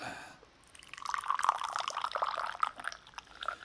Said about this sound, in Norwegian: Og søle litt på Å, søle litt på gulvet. Ja, sånn. OK. Nå sølte jeg halve kanna på gulvet, men uh, dere hørte iallfall at det var noe som ble helt der. Det er ei marokkansk eh, tekanne med marokkansk autentisk eh, myntete kjøpt i Marrakech